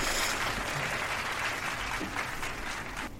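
Steady applause for contest winners fills the whole stretch, a dense run of hand claps with a hollow, echoing quality, as if struck in a resonant space. No voices are heard.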